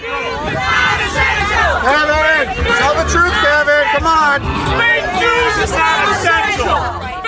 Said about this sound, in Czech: Lidé se na nás novináře otáčejí. Sedíme totiž vzadu za publikem a ukazují si na nás a bučí.